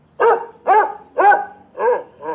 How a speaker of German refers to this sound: Der Hund Nelson bellt wieder.